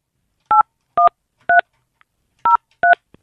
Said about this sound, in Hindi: number लगा लिया है